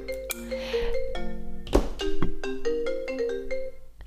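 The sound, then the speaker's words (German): A mobile phone ringtone plays a bright, stepping electronic melody of sustained tones, fairly loud, with a couple of soft thumps partway through and no one speaking. “Hat gleich noch mein Telefon geklingelt.”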